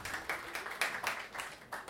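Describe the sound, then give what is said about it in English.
A brief burst of audience applause, many hands clapping with a steady, dense patter and a few sharper claps standing out over about two seconds. “Give me a round of applause if I'm right.”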